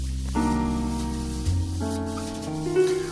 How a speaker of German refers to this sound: Und hier im Hintergrund hört man das Schlagzeug rascheln. Auf eine wunderbar anheimelnde und gewinnende Art.